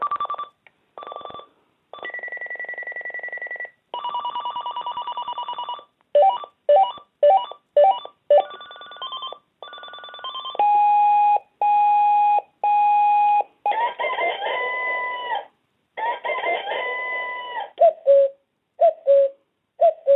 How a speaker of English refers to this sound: Timer with report, auto repeat timer, stopwatch, alarm clock. I'll let you hear the alarms it has once I get into that.